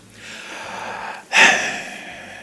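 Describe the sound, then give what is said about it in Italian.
A sharp breath drawn in through the mouth, sudden and fairly loud, like a quick gasp that trails off. It comes after a softer stretch of airy breathing, with no talking. “Eh, Senti eh, questo respiro che è eh. tutto e non è niente.”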